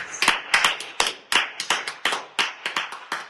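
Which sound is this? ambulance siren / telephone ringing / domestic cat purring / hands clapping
hands clapping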